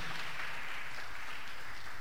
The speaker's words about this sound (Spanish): Dele el aplauso al Señor esta noche.